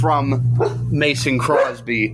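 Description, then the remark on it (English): A dog, excited because people are home, barks excitedly several times in quick bursts, overlapping a man who keeps talking. “That's my dog, everyone.”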